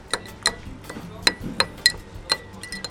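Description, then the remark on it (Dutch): A spoon muddles pine needles from a pine branch in water in a glass to release more flavour, making a series of bright, ringing clinks, about seven sharp taps at an uneven pace, over a quiet background. “En dan ga je het even kneuzen in het glas, tot, er meer smaak vrijkomt.”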